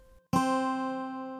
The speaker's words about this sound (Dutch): Eigenlijk zijn twee tonen met een octaaf ertussen gewoon hetzelfde.